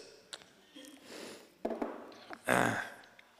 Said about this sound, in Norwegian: Jeg drikker litt, jeg. Ja, gjør det. Drikk og pust.